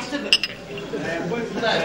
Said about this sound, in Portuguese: O tilintar dos copos, num brinde partilhado por uma dezena de homens, não é neste caso sinónimo de festejo ou de alegria.